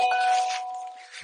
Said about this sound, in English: That uh, that was my phone.